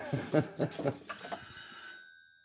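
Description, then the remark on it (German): A brief burst of an old telephone bell ringing in the next room, its metallic tone hanging and fading out over a second or so, just after a short stretch of someone talking. “Nebenan klingelt das Telefon. Natürlich ein alter Apparat.”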